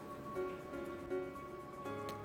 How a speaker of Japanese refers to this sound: 音声のね、今チェックをしてたんだけど、あの背景にね、いつも家の中であの室内のファウンテンをつけているんですねなので最大マックスにして 今音声チェックをしたらいやすごい水の音入ってる雨の音みたいと思ったんですが